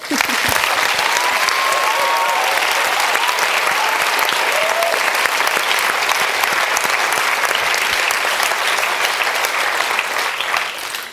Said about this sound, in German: Sie sind wirklich das beste Team, das man sich wünschen kann und ich möchte nochmal einen großen Applaus für sie bitte.